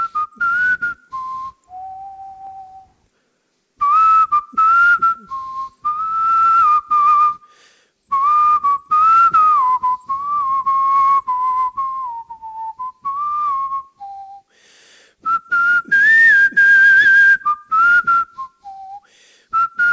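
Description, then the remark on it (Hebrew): A person whistles a melody alone, a clear pure tone gliding between notes in short phrases with brief pauses, steady and fairly loud throughout. “סוף סוף הוא פגש מישהו מעולם השרקנות, ומבחינתו זה היה נורא מרגש”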